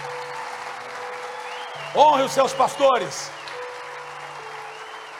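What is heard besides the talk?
audience applause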